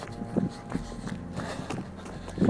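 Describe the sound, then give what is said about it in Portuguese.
Footsteps of someone running in the early hours before dawn, in rain and cold: a handful of soft thuds at an uneven jogging pace, fairly quiet, with a faint hum in the background and no voices. “correndo aí na madrugada, chovendo, frio.”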